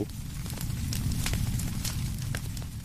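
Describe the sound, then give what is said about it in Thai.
A fire burning in open farm fields: a steady low roar with scattered sharp crackles and pops throughout, fairly loud, with no voices. “เคยเป็นแบบนี้ไหมครับ ไร่นาโดนไฟไหม้ใจก็เหมือนโดนไฟเผา”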